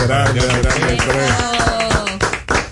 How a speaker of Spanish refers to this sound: Y es la exaltación al Salón de la Fama del quinto dominicano inmortal de la pelota como es Adrián Beltré. Un aplauso.